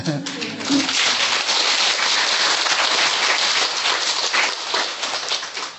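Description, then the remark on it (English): Rapid hand clapping fills several seconds, a dense, crackling patter at a steady, fairly loud level, with a faint voice briefly audible near the start. “Why you clap?”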